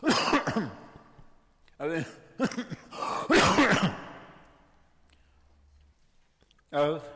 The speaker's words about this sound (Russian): На самом деле, этот кашель — это хороший признак, что заложенность проходит, мокрота отходит, не волнуйтесь.